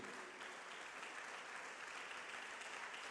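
Soft, steady applause from a crowd honoring the presence-of-God coordinators and leaders, a continuous dense patter of many hands clapping at an even level for a few seconds, with no voices standing out.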